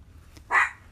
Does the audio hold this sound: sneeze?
no